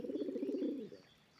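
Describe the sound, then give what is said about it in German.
A low, throaty cooing of doves at daybreak in spring, one rolling, slightly pulsing phrase lasting under a second, fairly clear, then fading into quiet. “Es waren die Tauben, die zu gurren begannen.”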